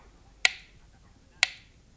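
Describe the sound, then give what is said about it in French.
Two crisp, loud ticks of a clock about to strike land exactly one second apart, each a sharp click with a brief ringing decay, over a quiet, faintly hissing background with no voices. “Mais elle menace avant de sonner. Écoutez. Maintenant elle vous avertit. L'horloge peut frapper ses coups.”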